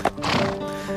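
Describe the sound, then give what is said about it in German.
A horse neighs loudly in a brief, harmonic whinny, with a hint of hooves clopping underneath. No one speaks. “Gauchos und Pferde, die durch die Pampa galoppieren.”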